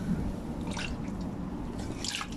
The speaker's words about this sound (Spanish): Y permítanme, dejen, tomo, agua.